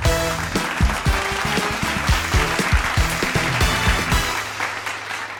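Dense, steady applause runs for about five seconds, layered over a punchy rhythmic jingle with a thumping low beat that settles into a held tone at the end; no one speaks.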